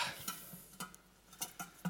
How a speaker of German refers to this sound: Und diese Steine, die lege ich jetzt mal hier in dieses Glas hinein. Die habe ich heute früh noch gesammelt. Die sind ganz schön dreckig und eklig.